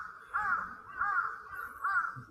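A crow caws three times in a steady rhythm, harsh nasal calls spaced about three-quarters of a second apart, moderately loud, with no voices.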